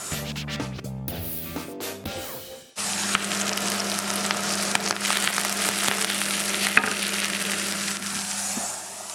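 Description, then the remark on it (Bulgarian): Onions fried until golden, for a roux for beans, sizzle and crackle steadily in a hot pan, a dense frying hiss with scattered pops, preceded by a few seconds of clinking and stirring noises. “Това беше златистия лук.”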